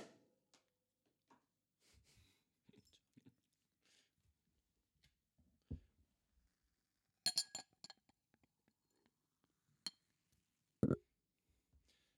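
Scattered glassy clinks and small knocks of glasses over sparkling wine, with a brighter cluster of chimes midway and one sharp, ringing clink near the end. No one speaks.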